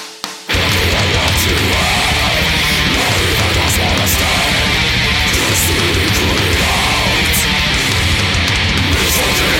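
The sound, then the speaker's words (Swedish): A recorded song plays back loudly and continuously after a brief quiet start, with dense, full-band music and a steady driving beat, no talking over it. “Eh, så är en text som jag är väldigt nöjd med och en låt som jag är väldigt nöjd med också.”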